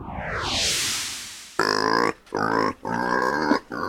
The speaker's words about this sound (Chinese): 哦，乖乖，这是大人打呼的声音。好啦，不是啦，这是开玩笑的，这是猪叫的声音。